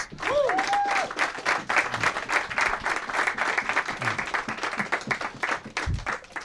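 An audience at a football talk evening in a pub breaks into a sustained round of applause, dense overlapping claps filling the whole stretch at steady loudness, with a brief whistle and a few cheers near the start.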